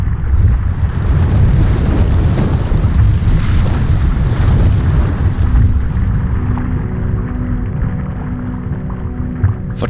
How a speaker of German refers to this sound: zwei Wochen gab es im Südpazifik einen gewaltigen Knall. als ein Vulkan geradezu explodiert, in die Luft geflogen.